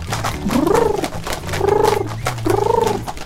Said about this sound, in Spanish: Las palomas revolotean a su placer.